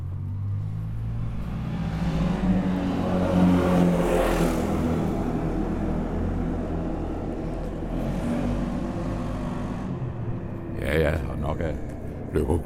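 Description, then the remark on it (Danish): Continuous street traffic in front of the entrance of the Centralhotellet in the town of Løgum Kloster, Denmark, with a car passing by, its engine rumble swelling and fading, followed by lighter road noise and a brief rattle near the end. “Ja, der er bestemt trafik.”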